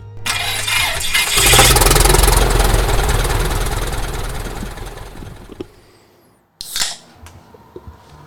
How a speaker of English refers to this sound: That uh, is a beautiful sound. Both of the caribou call and the airplane start. I do. Uh, yeah. Cranking up that airplane. That's a pretty good time.